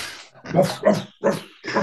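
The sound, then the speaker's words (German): A dog barks four times in a steady rhythm, sharp, each bark a short burst with brief pauses between, no talking underneath. “Der Patrick Reed des Golf, äh, des Crossgolfen braucht Hundegebell im Hintergrund.”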